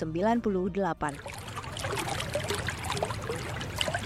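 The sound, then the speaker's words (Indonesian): A voice speaks briefly at the start, then a steady rush of flowing water from an artificial stream in the courtyard of the DPR mosque takes over, continuous, with bright trickling splashes throughout. “Loh ya, kok ada suara air mengalir ya? Dari mana ya? Wah, ternyata di halaman Masjid DPR ada sungai buatan.”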